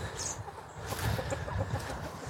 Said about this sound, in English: I'm feeding the chickens.